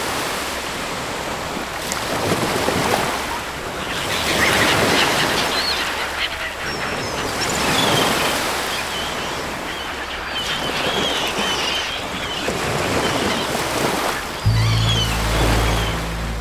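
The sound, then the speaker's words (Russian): Surf of the White Sea washes in broad, rolling surges every few seconds, a steady hiss of breaking waves, with faint honking calls of birds scattered over the roar. “И на фоне моего голоса – море.”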